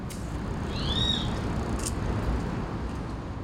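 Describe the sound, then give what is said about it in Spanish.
A brief pair of high, sweeping bird chirps rises over a steady, rumbling background hum; the call fades after about a second and no one speaks. “Ese canto lo escucho cada día al despertar.”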